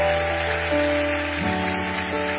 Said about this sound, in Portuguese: Vamos aplaudir o forte.